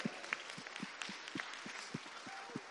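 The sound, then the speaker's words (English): A large group applauds steadily, a dense wash of many hands clapping at once with a few sharper claps standing out, with no voices, applauding the news that 350 kids are joining VBS. “We have um, 350 kids joining us. Now you could applaud, yeah.”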